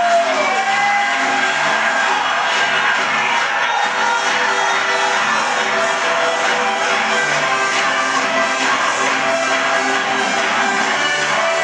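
An audience applauds loudly and steadily for about twelve seconds to welcome those signing up on the spot, a dense wash of clapping mixed with crowd cheering and a faint musical tone underneath, never letting up.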